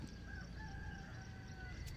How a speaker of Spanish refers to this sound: Hola, ahora es aquí al natural un poco más temprano y todavía no los pájaros empiezan a a despertar o a hacer sus cantos. Solo hay unos gallos